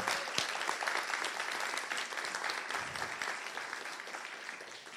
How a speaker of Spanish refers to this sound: Si usted lo cree, déle un aplauso, pero fuerte a Jesús. Pero fuerte a Jesús.